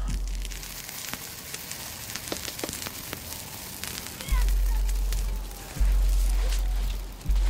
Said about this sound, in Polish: Niech bylica w ogniu trzeszczy, nocna mara z bólu wrzeszczy. Niech bylicy gałąź pęka, nocna mara zginie w mękach.